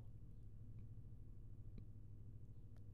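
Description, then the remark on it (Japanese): A faint, steady low hum of a washing machine running in the next room, picked up by a microphone with its noise gate switched off; a continuous muffled drone with a few soft clicks and no voices. “今、今、洗濯機隣でかかってるんで、まあ、そんな感じになってます。”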